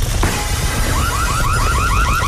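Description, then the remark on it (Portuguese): A newly installed fire alarm in a burning house starts up, sounding a rapid series of rising electronic whoops that repeat steadily and loudly over a constant low background rumble. “Com a breca, tenho a casa a arder, mas felizmente instalaram aqui um daqueles novos alarmes de incêndio.”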